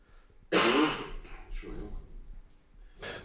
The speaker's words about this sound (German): Ich muss jetzt mal kurz husten.